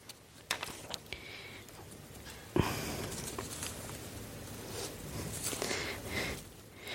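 Paper rustling: a few light crinkles, then a sharp papery flip followed by several seconds of continuous rustling and shuffling as a page is turned, with no voices.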